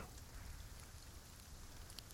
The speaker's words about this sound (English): She only heard the rain pattering on the tent for a few moments before she was off, beyond hearing.